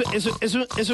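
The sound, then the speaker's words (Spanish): A person imitates a mother pig singing to her piglets: a loud voice making three rhythmic, sing-song grunting pulses in quick succession with brief dips between them. “Eso es un canto de madre cerdo.”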